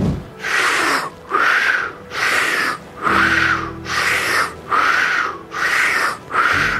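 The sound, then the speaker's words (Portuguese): Loud, rhythmic breathing through the mouth as part of an intense breathing exercise: about eight forceful breaths in quick succession, each filling the lungs and expelling the air in a broad airy rush, with short gaps between, no talking. “Primeiro, nós vamos ficar os primeiros segundos fazendo uma respiração mais intensa com a boca, que vai ser assim, ó.”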